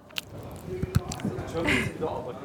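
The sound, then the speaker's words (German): Crunching and chewing of crackling popping candy, with a few sharp crackles and pops as a special sugar in it dissolves, wet mouth sounds and faint breathy vocal noises mixed in. “Ich beiß jetzt mal rein und lass es mal knistern.”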